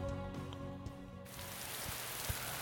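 Rain falls outside a window at four in the morning, heard from a recording room. It comes in as a steady, even hiss with a few soft patters after a brief quiet stretch of low, sustained tones. No one speaks.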